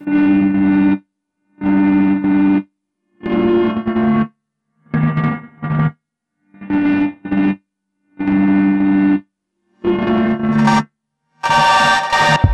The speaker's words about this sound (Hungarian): De most a jelen időlemez első dalát halljuk